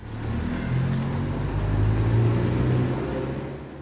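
A car engine hums steadily and then revs up, its pitch climbing to a peak midway before settling back down. The motor sounds fairly loud, with no voices.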